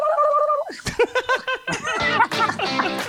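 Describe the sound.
A voice sings a brief note, then breaks into a rapid, warbling tongue trill in several choppy bursts, like a turkey's gobble, imitating how a singer sang at the Super Bowl.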